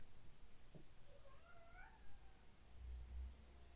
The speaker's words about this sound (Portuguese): Se você está ouvindo um barulho de um miado, de um gato ou de pássaros, o miado é meu gato.